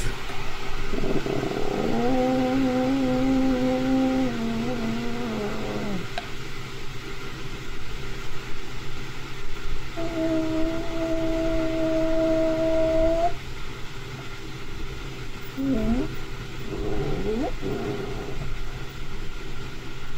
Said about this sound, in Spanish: esta chava dice que no era ningún animal y eh, es un sonido de, del Sasquatch afuera de su casa de campaña. Ahí va.